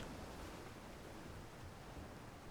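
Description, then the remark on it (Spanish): A soft, steady wash of calm open-ocean water heard from a ship sailing from Southampton toward New York, a continuous gentle hiss with no distinct breaking waves, heard alone without any voices. “Salimos del puerto de Southampton hace unos días con rumbo a Nueva York y ahora mismo me hallo navegando en el mar más calmo que han visto mis ojos en 45 años.”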